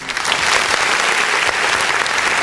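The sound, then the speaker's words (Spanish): Enthusiastic audience applause for the host at the start of the show Más o menos regular, a dense, steady crackle of many hands clapping at once, loud and sustained for the whole moment with no voices rising above it. “Qué bonito escuchar a todo el público que entusiasta me aplaude.”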